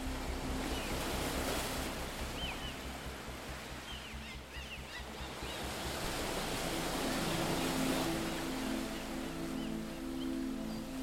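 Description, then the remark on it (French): Ocean waves break and wash continuously onto a beach in a steady, roaring surf, with a faint low hum underneath and no voices. “Leurs rires résonnent au loin, couverts par le bruit des vagues.”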